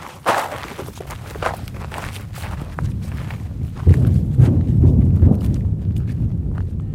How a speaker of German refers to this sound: Um einen Eindruck zu bekommen, wie sich dieser Krieg anhört und wie er aussieht, muss man erst einmal marschieren. Es geht über dorniges Gestrüpp auf einen Hügel. Zum Grenzzaun nach Gaza ist es Luftlinie nicht einmal ein Kilometer.